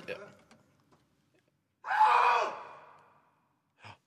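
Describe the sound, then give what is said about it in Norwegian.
A single drawn-out shout rings out in a backyard about 12-13 metres from the microphone, lasting about a second before fading, with faint breathy voice sounds just before it and a short vocal noise at the end. “vi skal sjekke om vi klarer å komme inn på din mikrofon der nede i bakgården, ca. 12-13 meter unna”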